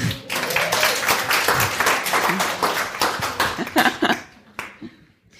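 An audience applauds a volunteer who balanced a stick on her flat hand. It is a dense, steady patter of many hands clapping that holds strong for about four seconds, then thins out and fades to a few scattered claps.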